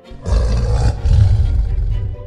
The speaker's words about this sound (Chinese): 胡老大一听到声音，转身看到老鼠和猫，立刻怒吼一声，